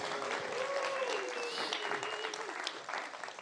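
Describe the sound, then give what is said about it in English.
An audience applauds for an assistant with dense, steady clapping that carries on for a few seconds at an even level, tapering slightly near the end, with a faint whistle-like tone drifting above it. “My glamorous assistant, round of applause for Alex.”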